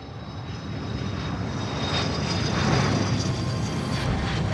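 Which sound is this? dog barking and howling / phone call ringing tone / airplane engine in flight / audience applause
airplane engine in flight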